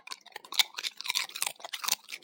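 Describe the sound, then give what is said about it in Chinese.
A dog crunching potato chips, with rapid, irregular crisp crunches and chomps packed closely together, fairly quiet and without any talking. “明显它的咀嚼的频率比我大。”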